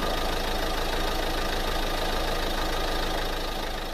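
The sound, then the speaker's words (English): A car pulls up at a rig at night and its engine rumbles steadily at idle, fairly loud, with a low knocking throb running through the whole stretch and no voices. “I was toasting some pork chops over the porch myself when I heard a car pull.”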